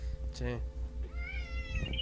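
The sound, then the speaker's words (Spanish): A cat meows twice, first a short harmonic cry and then a longer, rising, drawn-out meow, over a steady low hum and faint background murmur. “Fue un gato, aquí no te espantes”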